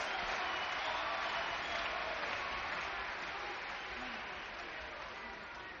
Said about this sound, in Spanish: ¿Qué se puede agregar después de esta ovación? El público se entrega a los músicos que se le entregaron íntegramente, con mística, con devoción tanguera.